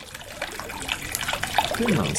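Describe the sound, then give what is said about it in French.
A thin stream of water falls steadily from an opened tap, a continuous trickling and splashing, with a faint voice briefly audible near the end. “Ouvrez un robinet et laissez tomber un filet d'eau.”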